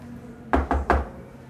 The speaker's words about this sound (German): Was, du gehst jetzt doch mal raus und dann klopfst du an.